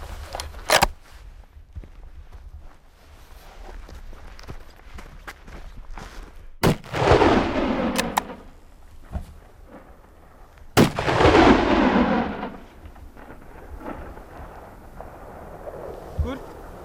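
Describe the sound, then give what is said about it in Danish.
Three rifle shots crack outdoors in a coastal area near a glacier at uneven intervals, the last two loud and followed by long rolling echoes that fade over a second or two, with faint background noise in between. “Så tager vi den med øh, for at være på den sikre side, så tager vi altid riflen med rundt give den et skæve.”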